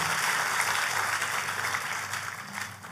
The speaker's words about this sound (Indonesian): Kasih tepuk tangan yang paling meriah buat Allah kita yang luar biasa.